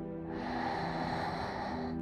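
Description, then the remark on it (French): A long, steady, deep breath drawn in through the nose during a breathing exercise, fairly loud, with a slightly whistling, airy rush lasting about two seconds and no talking. “Vous allez inspirer profondément par le nez”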